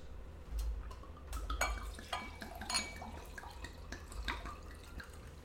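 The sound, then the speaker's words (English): Carlo Rossi Paisano sangria-flavored wine, 10% alcohol by volume, being poured into a glass, a steady splashing and gurgling stream with a few light glassy clinks over several seconds, no one speaking. “So now I'm going to go ahead and pour this.”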